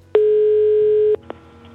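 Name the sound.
telephone ringing tone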